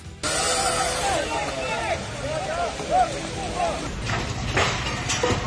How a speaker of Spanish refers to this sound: Eso que escuchamos son los escombros que caen de uno de los edificios afectados por los ataques. Ha sido en Odessa, donde un bloque residencial de 18 plantas ha quedado parcialmente destruido.